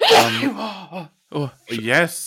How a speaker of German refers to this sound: oh, Entschuldigung. Gesundheit. Upsi, da hat's mich geschüttelt.